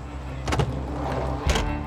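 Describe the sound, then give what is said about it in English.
A helicopter door swings open with two metallic clunks about a second apart, set against a steady low mechanical hum, after the helicopter has landed beside a lake and its rotor has stopped. Moderately loud, with no voices. “The door swung open, and a man in a green flight suit stepped out.”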